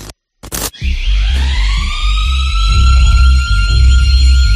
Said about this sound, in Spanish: nada, al minuto eh, sonó el timbre y, el aviso por pues, el incendio de vivienda eh, en planta baja.